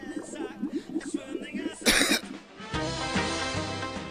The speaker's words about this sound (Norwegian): Menneskehetens hosteassosiasjoner står på fast grunn. Fisken bekrefter at hosting er en munnbevegelse framkalt av irritasjon ved luftveiene.